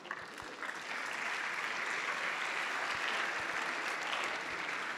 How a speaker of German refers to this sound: Ja, perfekt. Wunderbar. Einen großen Applaus.